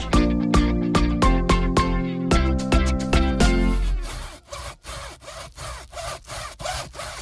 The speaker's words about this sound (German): können Sie mal ein bisschen leiser Ihren Kürbis da schnitzen?